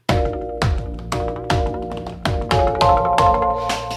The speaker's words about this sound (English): But now I've got a wave drum to play with.